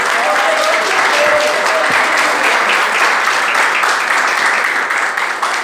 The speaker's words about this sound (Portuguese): E as palmas que exaltam o Senhor Jesus.